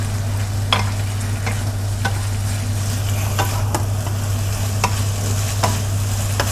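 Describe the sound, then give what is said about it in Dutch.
A utensil stirs steadily through a bubbling cornstarch mixture in boiling water in a pot, with repeated scraping strokes over a constant low hum and a soft sizzling hiss, without talk. “Ik laat het water koken, want anders wordt het dus echt niks.”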